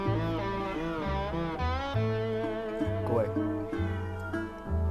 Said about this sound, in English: Pardon my vocal cat.